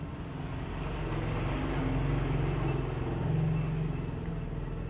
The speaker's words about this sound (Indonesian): Ya kenceng banget kan motornya tuh. Oh my god. Hey motor, lo nggak tahu gue lagi bikin podcast.